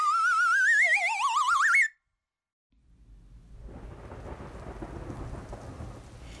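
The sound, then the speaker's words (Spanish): A warbling, rising electronic tone stops abruptly, and after a brief silence a thunderstorm swells in: steady rain with low, rumbling thunder growing louder and filling the background. “Ella nació una mañana de tormenta Mientras su madre gritaba con los dolores del parto, el mundo era un estrépito de truenos y viento”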